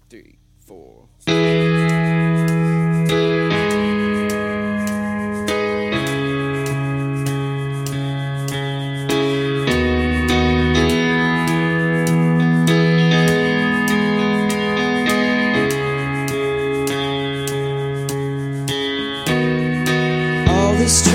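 An indie rock band performing live launches into an instrumental intro after a second of quiet, with layered, effects-heavy guitars and sustained chords playing loud and full, steady to the end.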